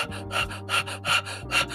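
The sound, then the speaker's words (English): A voice imitates rapid, agitated breathing, as when angry: about five quick, harsh breaths in a steady rhythm, fairly loud, over a low steady hum. “When you get ang- angry, your breathing becomes”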